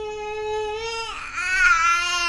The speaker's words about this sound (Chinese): 唱首歌吧，让大家听听你美妙的嚎叫声。 来，嚎一个。